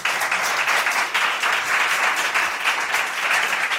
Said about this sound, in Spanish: Esto merece un aplauso, eh, yo creo.